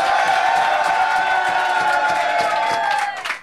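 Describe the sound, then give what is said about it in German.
A large crowd at a battle rap event cheers and whoops loudly and continuously for a rapper, a dense wall of shouting voices that holds steady for a few seconds before quickly fading out at the end. “Macht Lärm für den MC, der angefangen hat, für ….”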